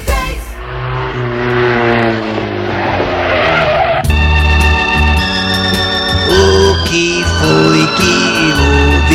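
A car races past with tires screeching loudly, the shrill squeal and engine roar sustained for several seconds, shifting pitch partway through. No voices are heard.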